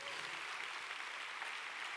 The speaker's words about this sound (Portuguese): Quem foi muito abençoado pela apresentação das crianças? Que lindo. Vamos dar mais um aplauso, não é? Que linda apresentação.